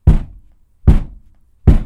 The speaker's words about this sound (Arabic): ثم سمعت ثلاث قرعات على الباب